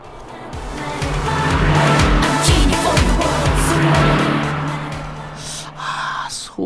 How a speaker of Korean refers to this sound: 잘 들으세요. 옆에 차 지나갑니다. 음악 소리 들릴 거예요. 옆차에서 어떤 노래를 들을까요? 들어보죠.